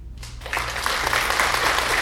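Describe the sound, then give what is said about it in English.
A round of applause swells in after a brief lull, dense overlapping clapping building to a steady, fairly loud roar that holds to the end, with a low hum underneath. “Let's give him a quick round of applause.”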